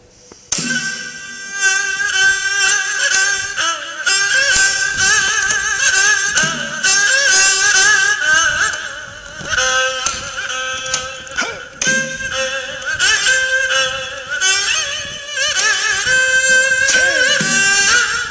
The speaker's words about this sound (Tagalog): it is a vertical fiddle with two silk strings uh, and played with a bow.